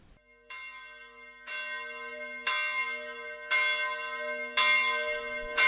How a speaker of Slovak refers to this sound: nám znejú zvony Zlatanoviec z rodnej obce nášho oslavenca docenta doktora Michala Slivka.